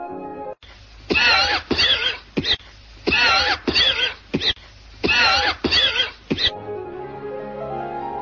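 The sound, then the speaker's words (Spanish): A series of harsh, wet hacking coughs, a chronic cough from continued smoking, come in three clustered fits, each with several rapid bursts, loud, followed by a raspy wheezing breath with no speech. “Mientras se sigue fumando, la tos va haciéndose crónica.”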